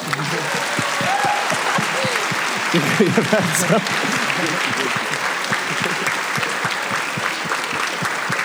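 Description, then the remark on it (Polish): Steady applause from an audience at a fan event for someone who brought a cookie, a dense patter of many hands clapping throughout, with a brief spoken thank-you from one voice partway through. “No, no brawa dla ciebie.”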